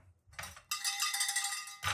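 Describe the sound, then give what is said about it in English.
A small metallic bell is rung, giving a bright, sustained ring for about a second, framed by short clattering knocks before and after. No one speaks. “Well, where's my bell?”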